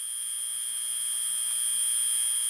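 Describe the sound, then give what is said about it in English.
A light bulb dimly lighting a building hallway late at night buzzes with a steady, thin, high-pitched electrical whine, holding constant throughout over a faint low hum, with no other sounds. “At this hour, I can only hear the buzzing of the light bulb that dimly lights the hallway.”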